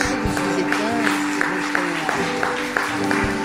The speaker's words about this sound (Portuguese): Aleluia. Aleluia! Dá salva de palmas a Deus.